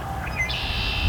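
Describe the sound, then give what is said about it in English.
Red-winged blackbirds call outdoors: a few short, thin whistled notes, then one bird breaks into a long, loud, buzzy trill that carries to the end over a low rumble of background noise. “And of course, these two red winged blackbirds calling”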